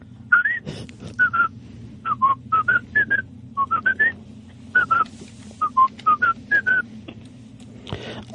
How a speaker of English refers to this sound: I whistle while I jack off.